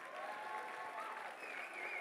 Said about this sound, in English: Oh, come on, give a Lord a clap.